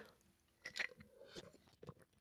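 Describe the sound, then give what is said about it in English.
Quiet mouth sounds of someone taking a sip of water: a few soft wet bursts and a gulp spread over a couple of seconds, with no talking. “I didn't crunch it. I just drank a little water.”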